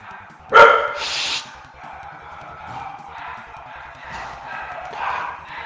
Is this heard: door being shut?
no